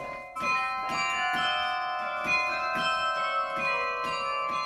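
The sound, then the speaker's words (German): Carillon bells hung in a new larch-wood bell frame, in a chamber 39 metres up a tower, ring out, struck in quick succession every half second or so, their overlapping tones building into a loud, shimmering, sustained wash with no voices. “Das Ganze ist ein Glockenstuhl, also das ist aus Lärchenholz.”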